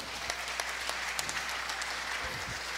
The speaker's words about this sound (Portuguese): Uma salva de palmas para os nossos atores aqui.